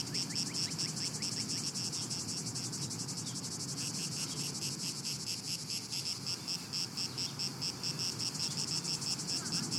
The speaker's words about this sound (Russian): Круто! Цикады крутые! Вы же хором поете!